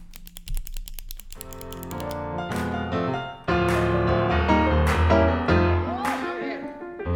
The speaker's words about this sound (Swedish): när jag börjar pilla så här på pennan, då brukar det betyda paus och kaffe. Pilla på pennan.